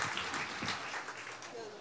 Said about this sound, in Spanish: Un aplauso, por favor, que sigue muchas gracias.